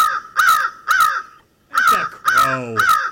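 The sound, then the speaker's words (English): A bald eagle calls five times in a quick, uneven series of harsh, raspy cries with a brief pause midway, loud with no other sounds around. “That's a bald eagle.”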